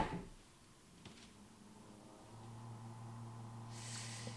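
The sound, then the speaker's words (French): The door of a new refrigerator shuts with a soft thump, then after a quiet pause a steady low electrical hum starts up, joined near the end by a breathy hiss. No one speaks. “Et, euh, et résultat, j'ai ce nouveau frigo, mais c'est pas la première fois que, tu vois, quand je le ferme, il met du temps”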